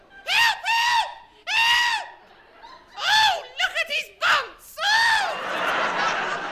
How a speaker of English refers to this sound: oh my goodness. I've I haven't heard a scream like it in quite some time. Good heavens!